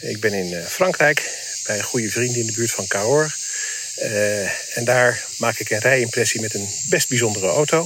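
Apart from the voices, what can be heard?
crickets chirping in background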